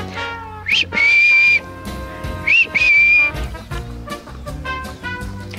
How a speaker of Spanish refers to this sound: Y nuevamente vas a hacer el ejercicio de silbarle y le vas a mostrar el premio para que él entienda que nuevamente lo vas a premiar.